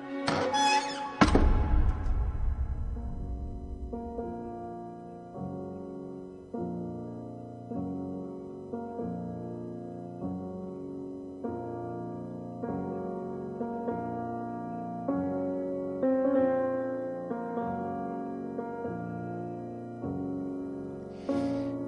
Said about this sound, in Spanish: La marcha fúnebre de Chopin sonando en la caverna.